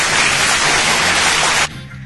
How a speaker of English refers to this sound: Hey, Let's get some applause.